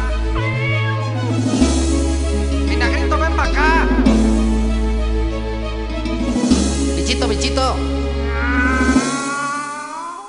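A cat meows repeatedly in drawn-out, rising and falling cries, several in a row, loud and close, over a steady musical backing with deep sustained bass notes.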